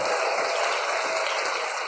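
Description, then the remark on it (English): Steady automatic (pre-recorded) applause from a crowd, a dense wash of many hands clapping at once, sustained and fairly loud for the whole stretch with no voices or cheering on top. “Here's here's the automatic applause.”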